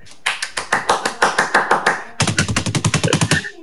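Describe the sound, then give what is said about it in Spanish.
Steady hand clapping in two quick runs, sharp even claps at a brisk rhythm with a brief pause between them, fairly loud with no talking. “Claro, aplausos.”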